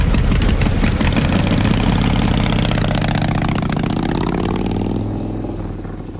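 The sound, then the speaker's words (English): A motorcycle with a sidecar, called Elvira, idles with a loud, steady, throaty rumble, its pitch shifting slightly before the sound eases a little toward the end. No one speaks. “I just look cuter than you on the back of a bike.”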